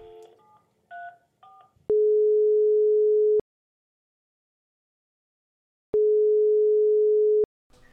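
A few quick dialing beeps, then a phone's ringback tone while calling someone to ask if he is on his way: two long, steady, loud buzzing tones separated by a silent gap, with no one talking.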